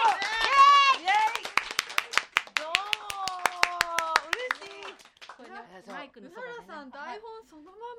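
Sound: applause welcoming a guest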